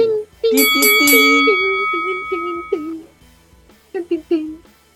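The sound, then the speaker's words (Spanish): A wrestling ring bell clangs several times in quick succession, ending the first fall and moving the match to the second fall, its metallic ring lingering for a couple of seconds while people talk over it and keep talking afterward. “Suena la campana.”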